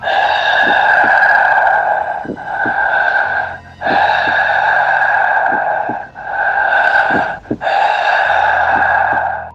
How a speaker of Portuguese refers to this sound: Era uma espécie de sussurro com um coração batendo, um barulho de coração no ouvido dela. Era uma coisa assustador, assim. Ela sentia o barulho, né, do coração batendo e parecia que tinha alguma coisa quente perto dela.